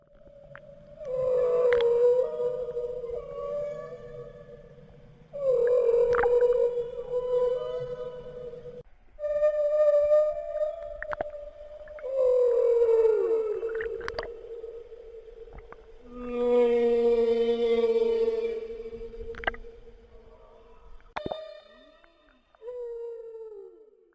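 Humpback whale song: a series of long, drawn-out moaning and wailing calls with rising and falling pitch, some with buzzy harmonics, repeating in phrases over about twenty seconds, with no voices.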